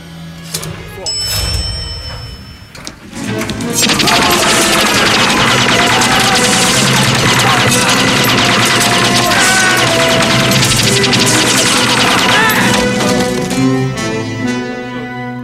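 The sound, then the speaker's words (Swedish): Dense, relentless movie gunfire erupts after a quieter opening as an army of kendo fighters is shot down before they can draw their swords, a loud sustained barrage of rapid shots and crashes layered with swelling score and shouting, continuing near-constantly to the end. “Ja, och nu ser man framför sig hur alla, vad heter det, eh, armén av Kendo-killar ligger till backen. Nerplöjda.”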